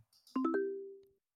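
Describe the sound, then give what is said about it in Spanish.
A short bright electronic chime marking a recommendation segment: three quick ascending tonal notes that ring out together and fade smoothly over about a second. Clean and alone with no voices. “Este es el sonido de recomendación.”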